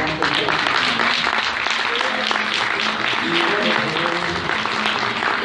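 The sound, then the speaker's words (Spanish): A crowd at a meeting claps for newcomers attending for the first time in a steady, dense, continuous wash of applause, loud and sustained for several seconds, with faint voices mixed in underneath. “Dales un fuerte aplauso a las que pues,”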